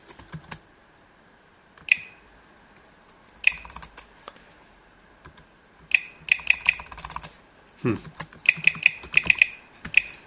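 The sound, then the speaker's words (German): Keyboard keys clicking in short, irregular bursts as a password is typed into a password field using VoiceOver, fairly crisp, with pauses between groups of keystrokes and a brief murmur from a person. “Das erste Zeichen klickt er nicht.”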